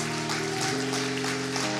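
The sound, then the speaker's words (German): A crowd applauds after a prayer, clapping for those who have just made the decision to turn to God, in a steady wash of clapping mixed with sustained musical tones that shift pitch partway through. No one speaks over it. “Jetzt ist Party, ihr dürft gern mal klatschen für die.”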